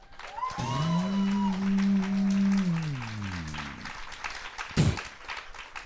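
Audience applause, called for a question about M&M Crisp or M&M with nuts, crackles steadily for several seconds beneath a loud, sustained tonal hum that slides downward and fades, followed by a short sharp burst near the end.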